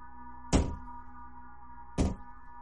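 Two heavy, dull knocks on a wall in a newly bought apartment late at night, spaced about a second and a half apart, each a short booming thud over a faint steady electrical hum. No one speaks.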